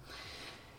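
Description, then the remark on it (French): A dog named Oseille lets out one soft, raspy snore, a brief, faint, breathy rush of air, with no voices around it. “Chut C'est mon chien une nouvelle fois qui ronfle.”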